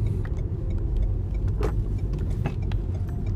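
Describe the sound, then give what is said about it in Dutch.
A steady low rumble of a car driving along the A348 near Giesbeek, Netherlands, heard from inside, with a constant engine and tyre drone and a few faint clicks and rattles on top. “Oh, ik vind het altijd wel lekker hoor, zo'n eh, stuk rijden.”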